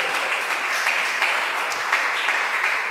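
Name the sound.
loud applause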